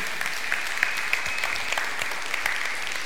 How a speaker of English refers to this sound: Come on, give him a hand this morning.